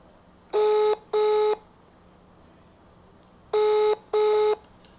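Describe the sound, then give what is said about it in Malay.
An outgoing phone call's ringback tone rings twice, each a quick double burst of steady electronic tones separated by a pause, clear and fairly loud with no one talking. “okey sebut satu aku ada seorang yang aku kan call. Dia ni pun bukan pemarah kau ni. Okey, silakan. Dia Sat, aku aku try kalau dia angkat.”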